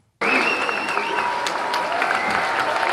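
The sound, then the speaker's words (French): University students at a law faculty burst into loud cheering and applause for François Hollande all at once, keeping up a dense, steady roar of clapping with high whoops and shouts rising above it throughout. “Acclamé comme une rockstar, François Hollande est assailli de demandes de selfies par des étudiants qui n'ont qu'un vague souvenir de son quinquennat.”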